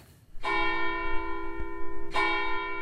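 The bells of the town church in Rottenburg an der Laber, Lower Bavaria, Germany, ring out loud: two strong strikes about two seconds apart, each leaving a long, rich humming resonance that overlaps the next.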